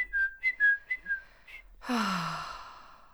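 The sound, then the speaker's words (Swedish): A person whistles a quick series of five or six short, high chirps in imitation of a bird, fairly soft, followed by a long breathy exhale. “Gud, vad bra du var på att härma.”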